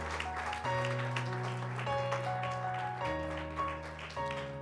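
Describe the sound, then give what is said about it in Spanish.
An audience at a church service claps steadily and densely in praise to the Lord over sustained keyboard chords that change every second or so, the applause and music continuing together at an even, fairly loud level throughout. “De un aplauso, alabanza al Señor.”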